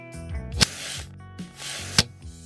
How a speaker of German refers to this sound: Ein weiterer Effekt wurde erzeugt, indem wir einen Objektivsound nahmen und diesen rückwärts abspielten. Ihr hört zunächst den Ausgangssound und anschließend den reversten Sound.